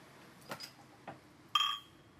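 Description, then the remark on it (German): Glasses clink together in a toast: two soft taps, then one bright, high, ringing clink that sustains briefly before fading. No one speaks. “Stößchen.”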